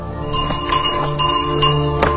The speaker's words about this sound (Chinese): 绿色的制服，绿色的邮包，绿色的自行车，伴随着清脆的铃声。这一幅绿色的画面，是许多中国人久远而温暖的记忆。